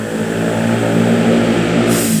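A motorcycle engine roars loudly, a steady droning buzz with strong low harmonics that holds for a couple of seconds as it passes, with no voices over it.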